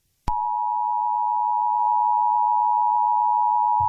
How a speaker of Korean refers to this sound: 이게 미국에서 국가적 재난 상황에서 국민들에게 방송으로 긴급하게 알려야 될 그 전달 사항을 전달을 할 때 나오는 소리라고 하더라고요.